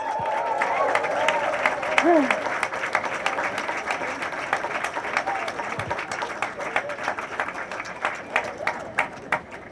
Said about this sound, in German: Ich mache das noch gar nicht so lange, aber danke an alle, die das schon ewig machen. Mal großen Applaus.